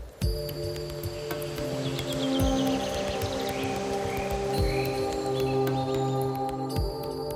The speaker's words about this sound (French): C'est l'été, les oiseaux chantent